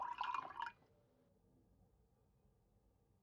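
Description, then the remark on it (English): A short pour of coffee into a cup at breakfast, a bright trickling splash lasting under a second and fairly clear, followed by near silence. “When I came down to our room, I found the breakfast laid and Holmes pouring out the coffee.”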